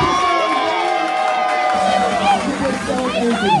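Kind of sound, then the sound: crowd, crowd cheering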